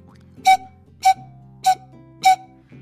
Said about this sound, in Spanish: Quisiera mostrarles algunos de estos instrumentos y su sonido. Esta es la pifilca, por ejemplo.